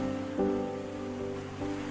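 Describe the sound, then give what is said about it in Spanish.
Ocean waves wash in a steady, hissing rush that swells twice, with a sustained musical tone humming underneath and no one speaking. “El hombre palo da vueltas y más vueltas hasta que las olas juguetonas lo dejan en una playa muy lejos de su hogar.”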